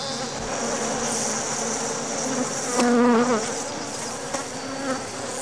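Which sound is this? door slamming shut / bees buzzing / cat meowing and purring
bees buzzing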